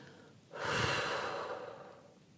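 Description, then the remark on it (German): A single slow, deep breath in and out during a meditation exercise, airy, swelling quickly and then fading gradually over about two seconds, with no talking. “Atmen Sie jetzt tief ein und wieder aus.”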